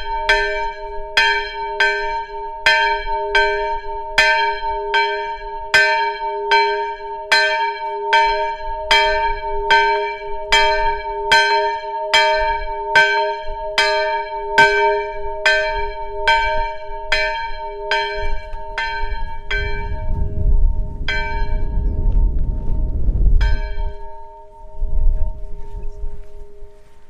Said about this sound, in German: Ja, das war die Kirchenglocke und zwar die Glocke der Kirche aus Jasau, zu der es eine ganz besondere Geschichte gibt.